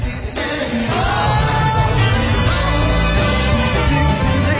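A rock song plays loud and full for the whole stretch, a dense band sound with strong bass and steady energy, and no one talking over it.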